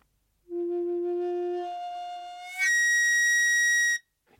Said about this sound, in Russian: Что-то похожее есть и у духовых инструментов. Э, сейчас я беру флейту и дую в нее э, с небольшой силой, но если я дуну в нее немножко сильнее, она сначала будет играть выше, а потом вообще завизжит.